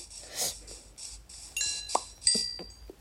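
Video game skeleton monster shooting arrows: a quick series of sharp, clinking twangs and thuds in uneven bursts, with bright ringing high tones over a low background rumble, no talking.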